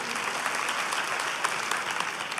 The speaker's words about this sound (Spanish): ¿Cuánto le dan aplauso al Espíritu Santo?